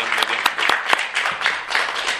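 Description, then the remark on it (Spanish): A crowd applauds someone who has received a disc of recorded Old Testament songs, a dense steady patter of many hands clapping at once, with a few sharper individual claps standing out from the wash of sound. “de los temas que se grabaron del Antiguo Testamento, le damos un aplauso, un gran aplauso.”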